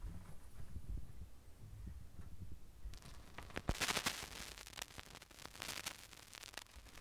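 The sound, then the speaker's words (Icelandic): Crackling of a vinyl record: a low hum gives way to dense, irregular pops and clicks over a hissy bed, fairly loud and continuous with no voices. “Það snarkar vel.”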